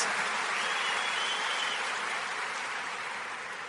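Steady audience applause, a dense wash of many hands clapping at once, holding fairly loud throughout and easing off only slightly toward the end, with no voices over it.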